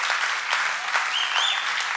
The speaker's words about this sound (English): Amen, church. Amen. Amen. Can we give Jesus a clap?